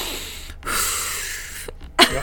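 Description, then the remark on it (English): A person imitates loud, heavy deep breathing like their breathing during a workout: a long, noisy exhale, a brief pause, then a sharp forceful huff and a trailing breath, breathy, with no talking. “so i'm like i know you're not deep breathing because you should hear what i sound like when i'm working out and like deep breathing i'm like”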